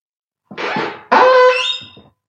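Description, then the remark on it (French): A creaking drawer sound effect from the BBC's sound effects collection opens in two loud strokes: first a rough scraping groan, then a longer, higher squealing creak that fades out with a few dry rattles. “c'est un tiroir qui grince.”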